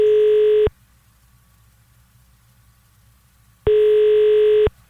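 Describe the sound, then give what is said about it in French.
Ringback tone from an outgoing phone call to the Old Miami: a steady, mid-pitched electronic tone sounds twice, each about a second long, separated by a roughly three-second silence over a faint low hum. “tu penses qu'on peut appeler direct le Old Miami?”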